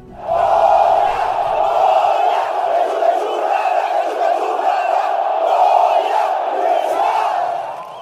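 A crowd lets out one loud, sustained collective shout, a roaring mass of voices that holds steady for several seconds before fading at the end.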